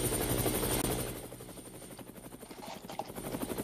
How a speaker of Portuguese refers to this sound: Cadê o helicóptero do, do senhor?